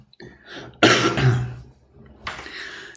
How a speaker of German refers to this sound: Dein Husten klingt auch sehr gut